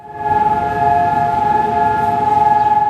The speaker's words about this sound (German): Mit Sirenengeheul gedenkt das Land eine Minute lang der sechs Millionen ermordeten Juden im Holocaust.